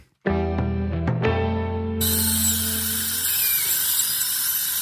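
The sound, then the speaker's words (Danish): A dentist's drill starts up with a piercing high whine, its pitch shifting as it runs continuously and loudly, with no voices present. “den forfærdelige lyd af tandlægebesøg”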